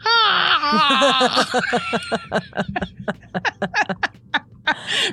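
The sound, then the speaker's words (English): A voice lets out a drawn-out, wavering growl-yawn imitating Chewbacca, then dissolves into rhythmic bursts of laughter. “I want to figure out how to make the Yoda or not the Yoda. What is it? the Chewbacca sound when you yawn?”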